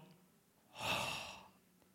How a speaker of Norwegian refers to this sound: Når kroppen vår gir slipp på sjelen har vi hørt om, også, altså, Han utåndet. Har dere hørt ordet før?